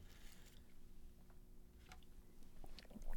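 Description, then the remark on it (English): Quiet sipping of eggnog from a cup, with a few soft wet slurps and mouth smacks scattered over a low background hum and no one speaking. “You're not helping me out here today you're just sipping your eggnog.”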